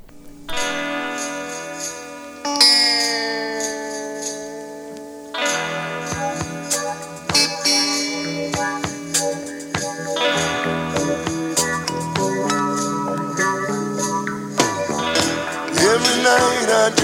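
A pop song cover plays on its own, a full, steady instrumental passage with sustained chords and bright tinkling, bell-like tones, loud throughout with no one talking.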